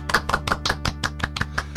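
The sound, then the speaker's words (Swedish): Applause welcoming a guest, as a quick, even run of about ten sharp claps, one every fifth of a second, over a steady low hum, with no voices. “En varm applåd.”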